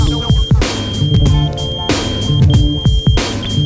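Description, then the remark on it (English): A pager beeps with a high, thin electronic tone in repeated pulses over a thumping hip-hop beat with heavy bass and drums. “Who the fuck is this? Paging me at 5:46 in the morning, crack of dawning.”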